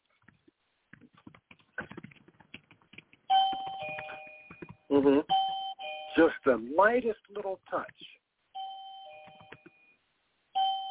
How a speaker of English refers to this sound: And it makes the doorbell go off. And it's to train your dog that when they want to go outside, you have it it has it, and it, an adhesive back. You stick it to the wall by the door. The yep. dog walks over, touches his nose to it